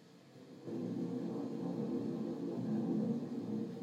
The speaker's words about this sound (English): Here's rain on the window with thunder.